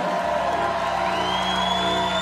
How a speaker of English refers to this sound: Somebody let out a shout of victory. Say it so the devil can hear you.